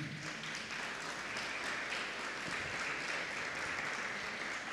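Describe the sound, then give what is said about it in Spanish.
A church audience claps hands steadily and vigorously in praise to the Lord, a dense, continuous wash of applause for several seconds without any voices rising above it. “Si usted le cree, dele palmas fuertemente al Señor.”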